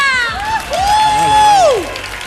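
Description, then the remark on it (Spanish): A concert crowd at La Riviera cheers and applauds loudly, with high whoops and shouted voices rising over steady clapping, a dense, continuous roar filling the space. “Oye, oye, oye, has empezado fuerte con el público cantando y todo, Hombre, ¿eh?”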